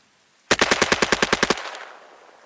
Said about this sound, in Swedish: så riktade jag k-pisten upp mot träden och så sköt jag.